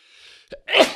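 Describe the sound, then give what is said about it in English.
A single loud sneeze: a faint breathy inhale and a short catch, then an explosive burst of air that trails off quickly. No one speaks. “Bless you.”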